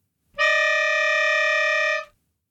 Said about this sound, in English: very dissonant, especially on my slightly out of tune melodica.